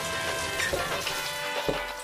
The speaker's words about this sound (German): kann man denn nicht einmal morgens in Ruhe duschen?